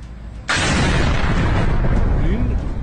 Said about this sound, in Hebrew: כלי תקשורת באיראן דיווחו אמש על סדרה של פיצוצים בבסיסים ומתקנים צבאיים ברחבי המדינה, מה שנראה כמתקפת כלי טיס בלתי מאוישים. זהות מבצע המתקפה לא ידועה.